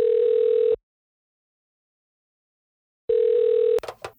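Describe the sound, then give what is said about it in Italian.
As a phone call is placed, a steady ringback tone sounds twice, each burst under a second long with a long silent gap between, then a brief rustle or click as the line connects. No one speaks. “Comunque ce lo racconta lei, chiamiamola.”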